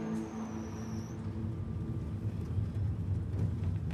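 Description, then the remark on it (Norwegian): A steady low engine drone and road rumble from inside a car driving out on another round during the night, continuous and moderately loud, with a faint high whine fading out early on. “Ute i bilen på ny runde. Det blir mye tid bak rattet i løpet av natten.”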